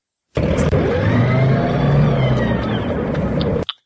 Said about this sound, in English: Actually, like a crane winch. No, it was the sound of when Ripley was in the you know like the the fighter bot during Aliens. That's the sound you heard.